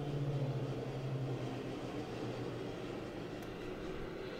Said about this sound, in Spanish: ¿Qué? Ya van varios días que pasan así aviones, helicópteros o no sé qué chingados son. Pero neta que parece que se van a estrellar cerca de mi casa, güey.